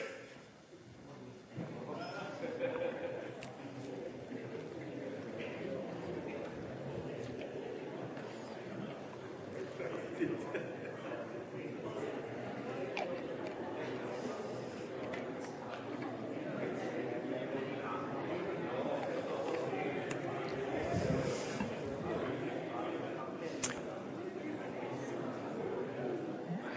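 An audience of people talking at once to their neighbours in front and behind, telling each other what they long for, their overlapping voices merging into a steady, continuous murmur with no single speaker standing out, holding an even level throughout.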